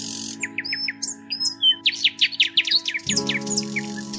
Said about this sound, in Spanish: Él aborrecía el silencio, por eso buscaba el rumor del arroyo o se entretenía escuchando el canto de los pájaros.